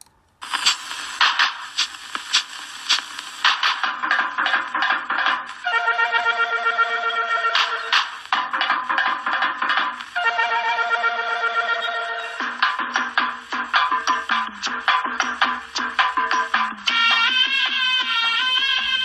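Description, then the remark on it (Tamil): An instrumental opening of a film love song: bright, ringing melodic notes played steadily and loud, shifting through several short phrases with a sustained chordal swell near the end, with no singing or talk. “அது love song மாதிரி இருக்கும் ஓப்பனிங் சாங் மாதிரி இருக்கும் அந்த பாட்டு ரொம்ப நல்லாயிருக்கும் அது அந்த பாட்டை கேளுங்க இப்போ ஓப்பனிங்கை”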